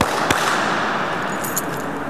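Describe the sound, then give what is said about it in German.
A single sharp hand clap rings out in a hall with many columns, followed by a long, loud reverberant wash that keeps ringing in the hall, with a fainter click about a second later. “Willst du mal klatschen?”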